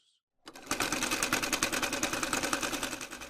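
A sewing machine starts up and runs steadily during a sewing lesson, its needle clattering in a fast, even rhythm, fairly loud for a few seconds after a brief quiet moment.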